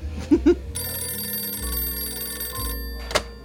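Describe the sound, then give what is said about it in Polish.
A telephone bell rings in one sustained, bright metallic burst lasting about two seconds, preceded by two dull thumps and followed by a sharp click. No one speaks. “Jak się super składa, że dzwonisz?”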